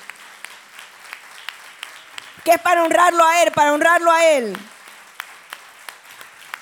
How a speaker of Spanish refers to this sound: Un fuerte aplauso al Señor Pero fuerte, fuerte. Fuerte ese aplauso con toda su energía. Con toda su energía, con toda su energía. Saque toda esa energía del corazón. Y honre al Señor a través de ese aplauso.